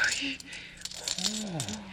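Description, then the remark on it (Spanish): A flurry of small metallic clinks as copper coins rain down and scatter onto a hard surface, tossed to a juggler, with indistinct voices murmuring underneath. “Las monedas de cobre le llovían al juglar.”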